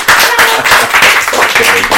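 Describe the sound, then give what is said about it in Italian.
Loud, dense applause from a crowd, many hands clapping at once in a continuous rapid patter that fills the whole stretch without any pause or voices; applause welcoming a guest introduced as Angelina Jolie. “Signore e signori, un grande applauso perché qui con noi c'è Angelina Jolie!”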